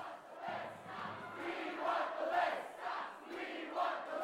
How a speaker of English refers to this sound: And then, in an almost perfectly self aware way, they started chanting the words mindless chanting.